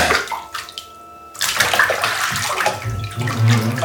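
Water runs from a bathtub tap in a steady, hissing rush, dips briefly to a quieter trickle, then surges back louder with splashing as it pours into the tub.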